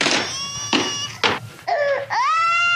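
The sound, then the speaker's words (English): A baby cries loudly, in a series of strained, harmonic wails broken by short breathy gasps, rising into a sustained high-pitched howl at the end. “And that baby is for real crying.”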